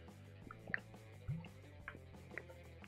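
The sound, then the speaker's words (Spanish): Someone takes a quiet sip of water during a live broadcast: a few small wet clicks and drips, then a soft low gulp, with no talking. “Déjenme tomar un poquito de agua, porque esto está crítico.”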